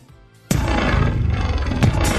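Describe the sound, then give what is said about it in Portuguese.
After a brief quiet lead-in, a loud, dense jingle effect like a small lion's roar bursts in abruptly and holds to the end, with a second punchy hit just before it finishes. “essa vinheta aqui, na verdade, ela é, isso aqui é um efeito como se fosse um puff”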